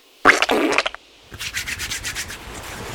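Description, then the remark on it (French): Wet friction of hands rubbing together with hand sanitizer gel, first in a loud dense burst, then after a brief pause in softer, quicker back-and-forth strokes with a slick, squishy texture. “les gestes barrières. Attends, j'ai du gel. Tiens.”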